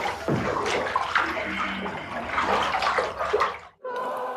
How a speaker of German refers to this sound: Wenn die selbsternannte Heilerin und Sektengründerin in der Badewanne heiliges Wasser anrührte, war das natürlich ein Quotenhit.